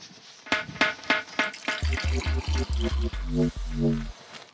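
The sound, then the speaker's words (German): Hot water is poured into a glass for dissolving sugar, starting with a few splashy clinks, then a steady gurgling stream whose pitch rises as the glass fills. No one speaks. “Also nochmal heißes Wasser und Zucker.”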